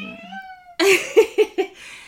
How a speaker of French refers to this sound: c'est le chat.